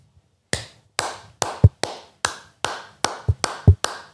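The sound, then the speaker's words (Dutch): A single person claps in a loose, slightly uneven rhythm, presented as the applause of yachtsman Martin Heineken: roughly a dozen sharp, crisp claps with a few heavier thumps mixed in. No talking, with silence between the claps. “Dit was het applaus van Martin Heineken.”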